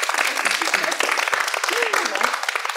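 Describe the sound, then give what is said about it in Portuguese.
A crowd applauds a pick-up line steadily, a dense rush of many hands clapping at once and holding at a fairly loud level throughout, with faint voices or a brief whoop rising over it. “Para palmas pra essa cantada.”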